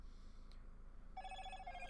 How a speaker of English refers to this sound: Yep, there goes my phone.